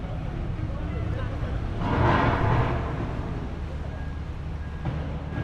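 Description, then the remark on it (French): Busy harbour ambience at the port of Dakar at 7 pm while boarding a ferry to Ziguinchor through the hold: a steady low engine rumble and dense crowd noise, with indistinct voices in the background and a louder swell of activity midway through. “Derrière moi, le port de Dakar. On rentre dans le bateau par la cale.”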